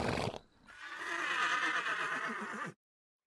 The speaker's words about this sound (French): À l'étable, elle découvre un cheval très étrange. Il a une tête devant, une tête derrière et deux queues au milieu du corps. Dès qu'il voit le panier, il hennit de joie et se met à brouter le grain d'or.